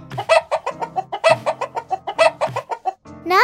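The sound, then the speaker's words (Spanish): A person imitates a chicken, making a rapid series of clucking sounds in a steady, bouncing rhythm, fairly loud, ending with a rising squawk-like call. “Una gallina, una gallina, perdón. Una gallina.”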